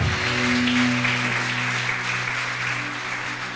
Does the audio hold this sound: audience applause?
yes